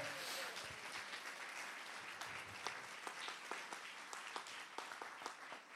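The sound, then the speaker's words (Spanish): A crowd applauds Jesus steadily, many hands clapping in a dense, sustained wash with sharper individual claps popping through, holding fairly loud throughout. “Vamos a dar un aplauso fuerte a Jesús si usted lo cree.”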